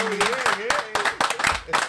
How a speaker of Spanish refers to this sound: ¡Wow! ¡Aplauso!